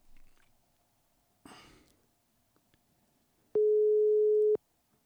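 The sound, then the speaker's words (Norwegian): A telephone ringback tone on an outgoing call: one loud, steady, one-second beep near the end, preceded by a short breathy rustle and otherwise quiet background. “Det ringer i hvert fall.”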